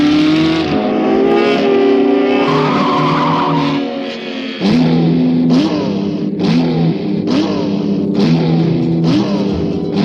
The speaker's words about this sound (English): Engines are revving. The starter leaps high. The checkered flag is down.